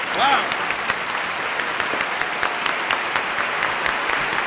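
Steady applause from a crowd, a dense crackling patter of many hands clapping that sounds much like bacon sizzling in a pan, with a brief voice near the start.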